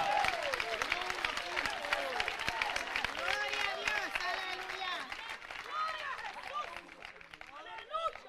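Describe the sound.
An audience claps steadily and densely for several seconds during worship tonight, the rapid hand claps blending into a continuous wash, with many voices calling out and shouting over the applause.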